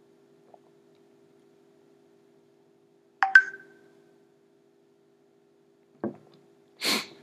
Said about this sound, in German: So, jetzt hattet ihr kurz die Möglichkeit, den, das Geräusch einer WhatsApp-Nachricht zu hören.